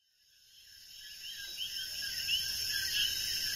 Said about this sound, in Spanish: Y ahí estamos disfrutando de los coquís con los grillos que se entrelazan, esos sonidos, con esta tranquilidad absoluta.